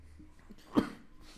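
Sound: sneeze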